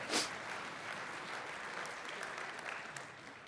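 A round of applause fills the moment, with steady, dense clapping from many hands that holds at an even level for a few seconds before tapering slightly at the end.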